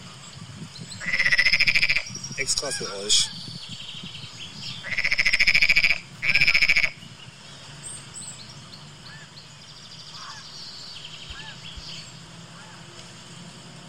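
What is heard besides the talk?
frogs croaking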